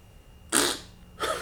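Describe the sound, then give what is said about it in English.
Someone mimics a wet, liquid, damp fart with their mouth: two close, noisy sputtering blasts, the first longer and louder, the second shorter, with no talking around them. “like not a lippy fart, like blowout of anal, like just like you know what I mean, like not like like that that upper like liquid.”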